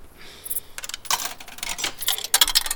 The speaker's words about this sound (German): Er wirft die Münze oben rein, die Münze kommt unten raus.